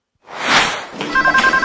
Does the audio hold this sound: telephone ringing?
yes